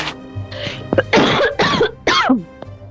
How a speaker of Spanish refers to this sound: Perdón por la tos que entraron ahora mismo.